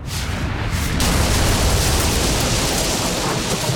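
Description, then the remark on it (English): A loud explosion on a ship as a U-boat's shell hits the poop deck where the main gun, ammunition and depth charges were stored, probably setting off a depth charge: a rumbling roar that suddenly bursts into a harsh, full crackling blast about a second in, then keeps thundering steadily to the end. “There was a terrific explosion, probably one of the depth charges”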